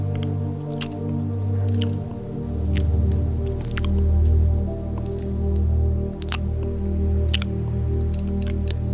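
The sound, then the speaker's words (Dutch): Wet, squelching mouth sounds of someone eating an oyster, with scattered sharp smacks and clicks over a steady low hum. No one speaks. “Hoe de gladde, sappige oester door je glijdt als je tong beweegt.”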